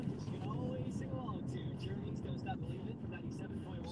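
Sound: car interior road noise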